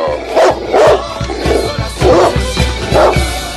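A dog barks repeatedly in a steady rhythm, about six loud barks spaced roughly half a second apart, with no talking over them.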